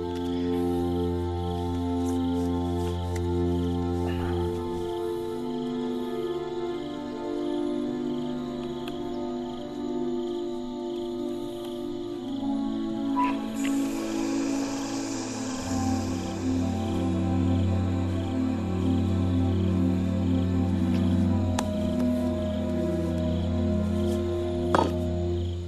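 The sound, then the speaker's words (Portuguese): An instrumental film score cue, a track heard in the film but not included on its soundtrack album, of sustained, layered tones over a low droning bass, shifting through several sections with steady loudness and a few bright accents, no voices. “Sim, e tem muitas faixas, tem algumas faixas que tem no filme que não tem no álbum.”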